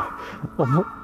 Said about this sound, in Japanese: さてさて、なんかめっちゃカラス鳴いてます。